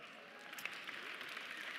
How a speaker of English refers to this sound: Yeah, thank you for the applause for the tie.